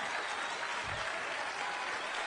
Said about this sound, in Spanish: Quiero felicitar a todos los que vienen por primera vez a una convención. ¿Quiénes son? ¿Se pueden poner de pie? ¡Wow! Eh, vamos a darles un fuerte aplauso.